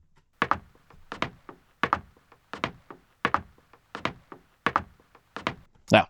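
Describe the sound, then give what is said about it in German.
A steady, evenly spaced run of about ten identical footsteps, each a sharp heel-toe scuff repeating at a mechanical, looped rhythm, made by copying footstep clips back to back in Nuendo audio software, with no voices. “Hier habe ich jetzt zwei Fußschritte. Die reichen mir nicht, ich brauche mehr.”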